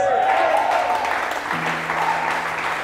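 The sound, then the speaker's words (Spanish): An audience applauding steadily, a dense wash of clapping that fills the whole clip at a constant level, with a faint held tone underneath partway through. “Y ese aplauso también tiene que ser para ustedes, felicitando su fe, felicitando su esfuerzo felicitando eh, cómo han batallado hasta llegar acá.”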